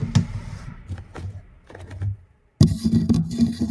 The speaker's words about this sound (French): Donc si vous entendez gratter à la porte.